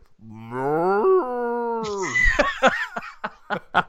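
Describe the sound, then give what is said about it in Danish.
A person lets out a long, drawn-out imitation of a cow's moo that swells upward and holds for about two seconds, followed by bursts of breathy laughter. “Bare en flok køer, mand.”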